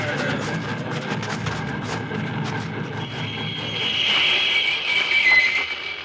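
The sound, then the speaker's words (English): A locomotive train rumbles along steadily with a rhythmic clatter of wheels on track, then a high metallic squeal of wheels rises and grows louder over the last few seconds. No one speaks. “Stop that locomotive, or we'll shoot!”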